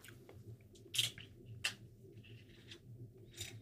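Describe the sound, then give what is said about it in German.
Wet mouth sounds of someone tasting oil from a spoon put into their mouth: a few soft lip smacks and tongue clicks spread over a few seconds, against a low, steady background hum, with no talking. “ich bekommen gerade Öllöffel in den Mund gesteckt”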